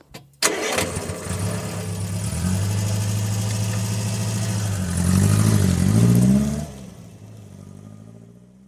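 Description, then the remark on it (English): A car engine cranks and catches, then settles into a steady rumble before the driver revs it harder and the car pulls away onto a steep, winding road up a cliff to Carnifex House, the sound easing off as it drives away. No voices. “The driver revs up the engine, and the car turns onto the steep, winding road that will take them up the cliff to Carnifex House.”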